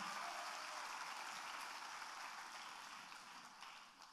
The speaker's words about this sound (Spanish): Dale un aplauso antes de sentarte al Señor.